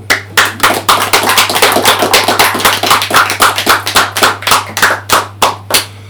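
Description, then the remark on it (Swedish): Audience applause of many hands clapping: loud, crisp claps bunch into a steady patter, then thin into fewer, more separate claps at the end. A low electrical hum runs underneath. “En stor applåd!”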